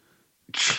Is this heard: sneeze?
yes